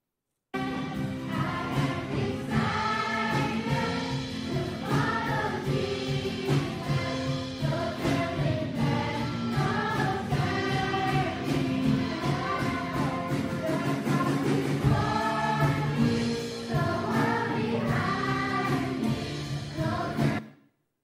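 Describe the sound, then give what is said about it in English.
A group of children sing a simple, repetitive worship song to Jesus, led by a worship leader, their voices full and steady for about twenty seconds, with rhythmic accompaniment running underneath throughout. “the worship leader just said, Come, let's just worship Jesus. We have a very simple song.”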